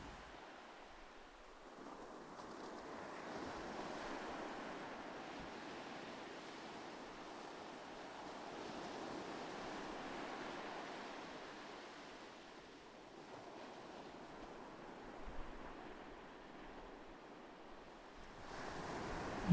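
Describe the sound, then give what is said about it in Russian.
Gentle waves of a calm sea wash softly onto sand in a steady, low hush on a warm, calm night, swelling and receding in slow surges. The surf sounds calm and fairly quiet, with no voices. “Вот и сейчас спокойное море как будто обнимает песок своими волнами”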